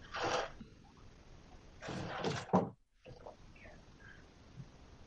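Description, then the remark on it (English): A chair is shoved against a door: one short scraping bump, then after a pause a longer burst of scraping and knocking that ends in a solid thud. Fairly loud. “and I was like, oh, and then I put a door, I put a chair in front of the door so so, so no one comes in.”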